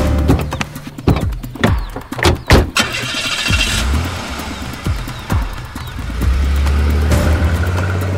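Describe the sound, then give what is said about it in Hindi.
A jeep engine starts up after a run of sharp clattering knocks as the jeep is taken out in a hurry, then settles into a loud, steady low rumble. No one speaks. “jeep निकालो फटाफट”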